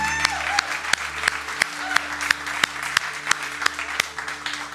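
An audience at Oceans church applauds its worship team on a Sunday morning, a broad wash of many hands clapping at once, with a few sharper individual claps standing out in a roughly regular rhythm over a low hum.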